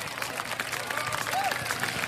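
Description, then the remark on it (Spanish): Steady applause fills the whole moment, a dense wash of many hands clapping at an even loudness, with a brief whistle-like tone rising and falling partway through. “Aplausos.”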